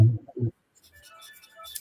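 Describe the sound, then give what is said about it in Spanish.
Two heavy, muffled knocks on a door by a man who wants to come in, then a faint thin chiming or tonal sound in the background. “Oye, un señor golpeando la puerta, dice que quiere entrar.”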